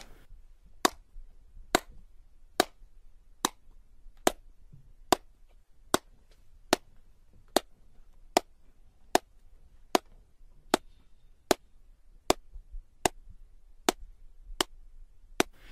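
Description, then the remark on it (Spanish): Single sharp hand claps in an ordinary room, made to demonstrate echo compared with an anechoic chamber, repeat at a steady pace of about one a second. Each clap is crisp and short with little trailing reverberation, over a faint low background hum and no voices. “Tú aplaudes una cámara anecoica y, no rebota.”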